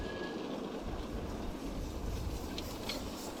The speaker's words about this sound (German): Hier kann man schön hören, wie die Dampfbahn an mir vorbeidampft.